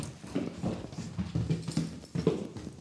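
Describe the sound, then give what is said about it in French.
Steady footsteps climb a staircase up five floors, about a hundred steps, a series of hard, evenly paced thuds, each step landing with a dull knock and a faint scuff. No one speaks. “On va d'abord vérifier si tu manques d'air ou pas en montant 5 étages.”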